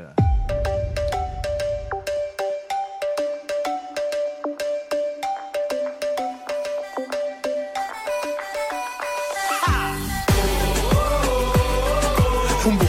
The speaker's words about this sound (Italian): Ci ascoltiamo questa tua canzone che si chiama ….